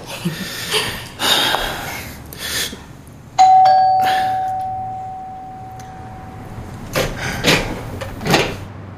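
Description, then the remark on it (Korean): The doorbell of apartment 807 on the eighth floor rings once with a bright, clear chime that lingers and slowly fades, set among faint indoor shuffling and soft background movement before and after. “그런 자신감을 타고 그는 제법 호기 있게 807호 초인종을 눌렀다.”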